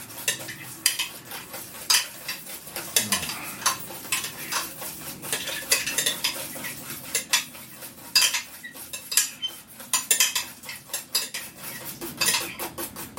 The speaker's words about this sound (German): Jetzt musst du kräftig rühren, weil das noch ein bisschen warm ist. Sonst haben wir hier gleich Rührei.